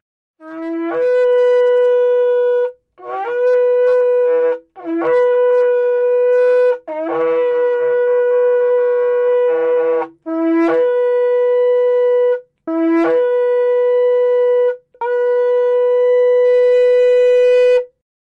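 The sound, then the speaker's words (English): A shofar sounds a series of seven loud, sustained blasts, each starting with a brief low note that leaps upward, separated by short pauses, with the last blast held longest. No one speaks. “If we were in a building together right now and you heard that shofar, that means settle down, let's get ready, let's start.”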